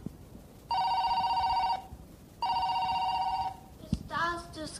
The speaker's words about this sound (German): Da klingelt das Telefon.